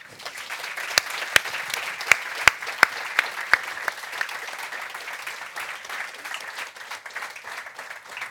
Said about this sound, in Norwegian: Da kan dere få lov å gi hele panelet en applaus.